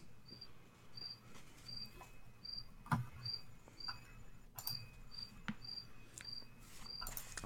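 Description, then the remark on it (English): Steady, evenly spaced cricket chirps repeat high and thin outside a window at night, with a faint low hum and occasional soft clicks in the background. “Thank, thank you, crickets outside my window.”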